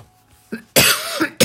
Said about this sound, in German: Muss ich selber schon husten hier beim Halschakra.